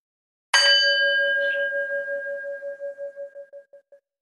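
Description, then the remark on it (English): A single meditation bell, the second of three in a guided relaxation, is struck once, ringing out clear, its tone shimmering with a gentle pulsing beat as it slowly fades over several seconds into silence. “And the second bell rolling gently to one side.”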